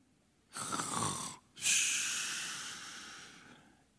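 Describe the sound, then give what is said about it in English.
A single snore: a rough, rattling inhale followed after a brief pause by a long, breathy hissing exhale that slowly fades. No one speaks. “Oh, he's he's snoring in the stern.”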